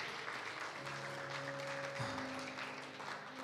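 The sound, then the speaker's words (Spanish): A church audience applauds God for three people who prayed for the first time, a dense, even wash of clapping for a few seconds, while sustained low musical tones, like a held keyboard chord, sound beneath it. “Dale un aplauso a Dios.”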